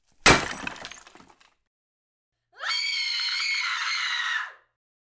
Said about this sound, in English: We only heard the smash, but not the cup being loaded. So the coffee maker didn't throw the cup.